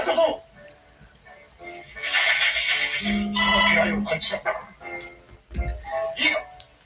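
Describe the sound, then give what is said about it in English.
A dog barks a few times in short, sharp bursts near the end, following a stretch of electronic ringing tones and scattered noise in the background. “Her sister got a dog.”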